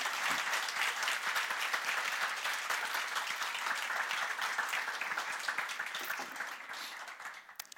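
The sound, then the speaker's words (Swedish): An audience applauds a guest after an interview, a dense, steady patter of many hands clapping that holds strong for several seconds, then thins out and fades toward the end. No one speaks over it. “Ni kommer att få chansen att ställa lite frågor, men eh, du kan ju få en applåd redan nu.”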